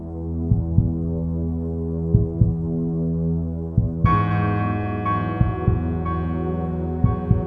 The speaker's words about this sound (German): Höre in dich hinein und fühle den gleichmäßigen Klang deines Herzens.